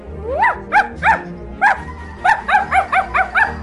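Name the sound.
small dog barking excitedly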